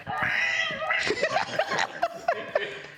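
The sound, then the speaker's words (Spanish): A human voice imitates a cat, letting out a string of whiny, drawn-out meows and yowls in quick succession, fairly loud, with a giggly edge. “No que se escuchaba como maullidos de gata ahí en su departamento.”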